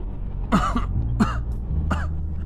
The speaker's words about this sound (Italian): vengo scosso da un altro attacco di tosse molto forte che mi costringe a tapparmi la bocca con un fazzoletto.